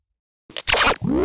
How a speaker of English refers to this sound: that was the noise of tape getting scratched